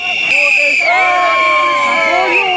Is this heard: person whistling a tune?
no